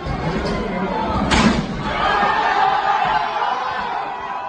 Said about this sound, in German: Störer hatten am Mittwoch versucht, Roscos Wahl zu verhindern. Erst drückten sie eine Tür zum Parlament ein.